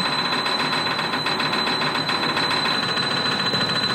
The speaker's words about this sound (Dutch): En die heeft exact in één minuut 879 keer eh, die toets kunnen doen. Dus het gaat gewoon om de snelste... Ik herkende er wel een beetje bag in eigenlijk. Dus, ja, kijk, als je het nog eens ja, luistert... Het eh, is een vleugel.